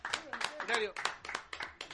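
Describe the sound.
Scattered clapping from a small group at a gathering broadcast on Radio Viva FM 96.7 in Punta del Este, applauding someone who brought pizza; sharp irregular claps rising and falling over about two seconds, mixed with voices talking and calling out at the same time.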